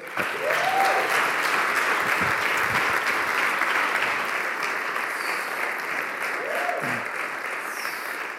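Steady, dense applause from a large crowd fills the whole stretch, a continuous wash of clapping that stays loud throughout, with a few faint cheers or whoops rising briefly above it.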